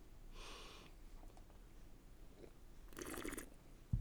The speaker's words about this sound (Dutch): ik zit aan mijn bier te ruiken, ja. Dat eh, moet ook gebeuren. Kortstondige snuifjes.